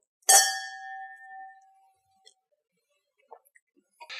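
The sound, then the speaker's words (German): A single bright, clear clink of glasses touching in a toast, with a ringing tone that fades over about a second, followed by a few faint small knocks. “Zum Wohl.”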